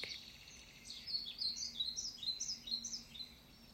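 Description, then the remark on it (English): Several birds chirp and trill in quick, overlapping high-pitched phrases in a forest, over a faint, steady outdoor hush, with no voices present. The calls are moderately loud. “Listen to the birds singing.”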